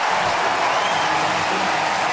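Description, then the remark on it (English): A baseball stadium crowd cheers for Kris Bryant after his five-for-five day, a steady, loud, dense roar that holds at an even level for about two seconds, with no single voice standing out. “Well, it's his turn now to hear the MVP chants from this crowd.”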